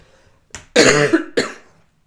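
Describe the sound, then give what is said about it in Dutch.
A person with a cold coughs: a short, light cough, then a loud, harsh, drawn-out cough followed quickly by another that fades, with no talking. “ja, moet even hoesten, want ik ben weer vreselijk verkouden geweest.”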